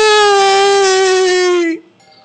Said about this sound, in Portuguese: E Marion voltou a chorar soluçando.